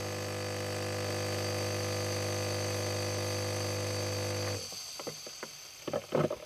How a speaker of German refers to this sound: sondern es ist halt die Kaffeemaschine, die braucht man halt früh dann einfach.